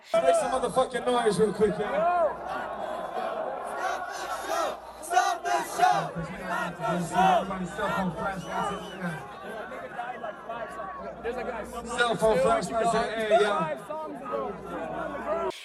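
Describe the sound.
A large concert crowd shouts and yells for help, begging for the show to stop because they cannot breathe, at a concert streamed on Apple TV and Apple Music; many voices overlap in a loud, continuous, chaotic roar, with a low rumble underneath and brief surges of louder cries throughout.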